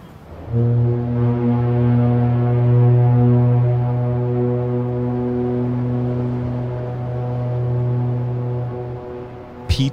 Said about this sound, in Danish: Toghornet baller igen, og han mumler for sig selv. A lonesome foghorn blows.